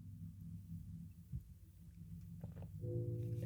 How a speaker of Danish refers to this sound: Man hører synket. Okay, ja. det kan jeg næsten leve med.